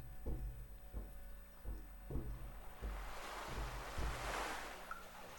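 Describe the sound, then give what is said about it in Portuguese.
Ocean surf rushes in and swells to a broad hiss of breaking water where the sea meets a hill in a landscape of scattered shrubs and low trees, with steady low thuds pulsing underneath at an even walking pace. No one speaks. “Você sente o cheiro da maresia e vê que o mar está bem ali na arrebentação da colina.”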